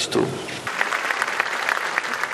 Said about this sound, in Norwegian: Applaus for Aserbajdsjans president Ilam Aliyev i Baku i går.